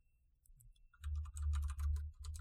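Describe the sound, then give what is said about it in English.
Rapid typing on a computer keyboard, a steady flurry of clicky keystrokes that starts softly and grows denser and louder after the first second, with a low hum underneath and no voices. “I can hear you typing.”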